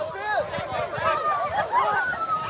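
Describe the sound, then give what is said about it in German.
Hundreds of people running across the Hungarian border into the EU, with many voices calling and shouting over one another in a dense, continuous hubbub, steady throughout. “Hier rennen gerade hunderte Menschen über die ungarische Grenze in die EU.”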